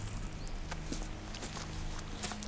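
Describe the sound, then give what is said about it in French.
Footsteps crunch through dry leaves and dry wood at a steady walking pace, each step a crisp, crackling burst, with no voices present. “Euh, le craquement des feuilles du bois sec. Ça croustille.”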